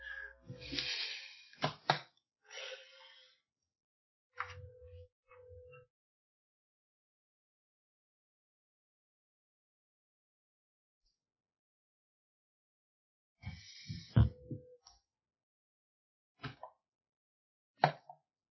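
A dog named Zoodle rubbing his face on the carpet: scuffling bursts of friction noise with a few soft thumps, coming in short clusters separated by a long quiet stretch.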